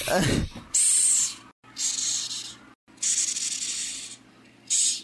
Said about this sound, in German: Ha, das ist schon ganz genial, wenn so eine Schabe dich erstmal so ein anfaucht, wie so eine Katze. Ey, die sind richtig laut auch, habe ich schon mal gehört.